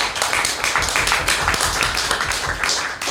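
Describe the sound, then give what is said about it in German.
Several people clap loudly and continuously for about three seconds, a dense, crackling burst of applause with steady energy throughout. “Boah, als Zuhörer gerade richtig eklig so klatschen.”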